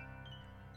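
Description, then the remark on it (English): A short electronic phone notification tone, a steady synthetic chime lasting under a second, heard alone and fairly soft with no talking over it. “Have you heard that, that was my phone.”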